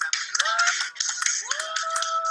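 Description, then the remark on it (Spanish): Dense audience applause for a show's first programme fills the whole stretch, a steady wash of many hands clapping at once, fairly loud, with faint tonal sounds weaving through and no clear talking. “Nuestro primer programa, nuevamente un aplauso para para”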